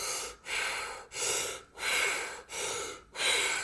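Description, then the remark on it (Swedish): A person imitates deep, heavy, laboured Kussmaul breathing, as a patient with advanced ketoacidosis breathes: loud, breathy inhales and exhales alternating in a steady rapid rhythm, about six breaths with brief pauses between them, and no talking. “Eh, och det är att man kan få så här kussmaulandning. Det är när patienten börjar liksom andas så här.”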